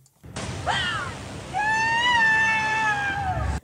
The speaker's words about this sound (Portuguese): fui já espreitar o trailer e confere, de facto, é uma novela com ADN CMTV, porque começa logo com um acidente fatal, horrível, com uma criança Ai, e com este hum. grito da avó.